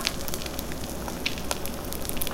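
A steady hiss of food frying in hot oil, dotted with sharp little pops and crackles. It sounds close and fairly loud, with no voices over it.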